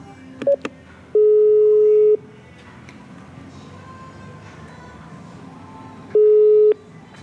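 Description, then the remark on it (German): An intercom ringing at the VIP entrance of FC St. Gallen 1879: after a brief blip, two steady electronic ring tones sound, one long and one shorter, separated by a pause with faint background noise. “Da läuten wir.”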